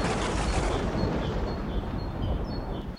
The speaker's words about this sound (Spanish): Después de decirle esto al leñador, Júpiter se remonta a los cielos con la gracilidad, entre ruidos de rayos, truenos y tormentas.